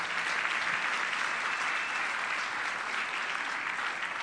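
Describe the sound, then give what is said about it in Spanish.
Sustained audience applause for a video just shown, a dense, steady wash of many hands clapping at even loudness for several seconds with no voices rising above it. “Entonces démosle un fuerte aplauso a ese video que acabamos de ver.”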